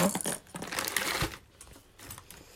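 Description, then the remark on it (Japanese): Small metal fishing lures clink and rattle together, a quick cluster of bright jingling taps in the first second that thins into lighter scattered clicks, with no voices. “金属音がしますね”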